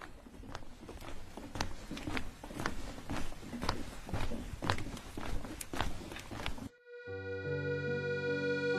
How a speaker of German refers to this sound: Ich werde jetzt gehen, ohne zu denken und zu reden. Versuchen Sie das auch und äh, gönnen Sie sich einen Moment der Ruhe. Los geht's.